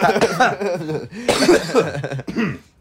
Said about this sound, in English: just a little cough. Oh, yeah, just, a little something in our throat.